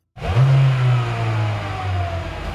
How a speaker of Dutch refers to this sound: Nou, nou. Voor een hybride is dat nog best een fijne sound.